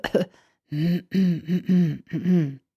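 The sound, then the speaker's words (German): A brief breathy rasp, then a series of soft, voiced, gentle throat clears, light hums from the throat in quick succession, moderately quiet, with no talking. “Dann ja, natürlich ein bisschen räuspern, aber eben sachte.”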